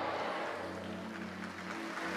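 An audience claps steadily for about two seconds, a dense, even wash of many hands with no pauses or swells and no voices rising above it.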